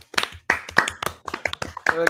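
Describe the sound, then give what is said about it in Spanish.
A brief burst of applause from a few people for all inventions, celebrating Invention Day: quick, uneven claps over about two seconds, with voices and a short vocal sound mixed in toward the end. “Un aplauso para todos los inventos, mi hermano.”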